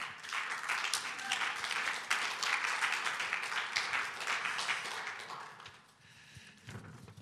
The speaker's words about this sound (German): Komm, wir geben ihr einfach mal Applaus.